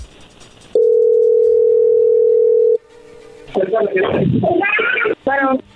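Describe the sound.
A loud, steady telephone dial tone hums for about two seconds while a call is being dialled, fades briefly, then gives way to a high, wavering voice.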